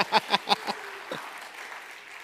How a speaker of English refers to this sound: All right. Somebody wants to clap. They just lit candles, y'all. It's not a big deal.